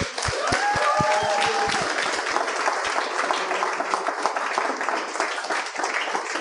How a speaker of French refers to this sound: Cette semaine à l'émission, j'aimerais ça qu'on donne bonne main d'applaudissement à mes invités.